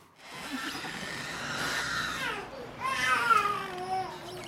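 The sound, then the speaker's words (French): A child's wailing cries, used as a sound effect to make a scene more realistic, rise and fall in two long, drawn-out bursts, steady in loudness, with no other voices talking. “Et comme quoi, par exemple bah, On peut ajouter les volets qui grincent ou alors des enfants qui pleurent.”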